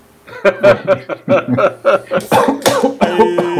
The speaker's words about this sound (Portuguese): Aí, aí, já tá tossindo, hein? Tá tossindo, é. hein? É, Coronga tosse, hein? Coronga tosse.